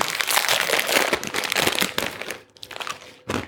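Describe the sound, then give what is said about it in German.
A tiny snack bag of crispy baked Brezli crinkles and crackles almost continuously, dense bursts of crisp plastic rustling, pausing briefly near the end before one last crinkle. No one speaks. “Es ist auch wieder ein, ein, ein wirkliches winziges Tütchen.”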